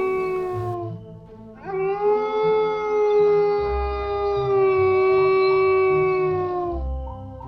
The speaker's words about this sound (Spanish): Creo que es un lobo. ¿Un lobo? Sí. Viene de esa casa, ¿no? Sí.